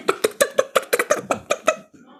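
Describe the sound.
A person imitates a squawking chicken that pecked a puppy, with about ten quick, rhythmic, throaty bursts in a row, loud, trailing off into a faint breath at the end.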